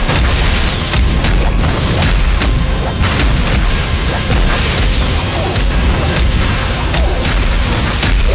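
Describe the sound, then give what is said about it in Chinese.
A giant snake's head slams into the ground, smashing out a deep pit and throwing up sand, gravel and dust: loud, booming crashes with deep rumbling and gritty debris that continues unbroken for several seconds, punctuated by a few heavier thuds. “巨蛇的头颅撞击到地面，砸出深坑，激起沙石和尘土。”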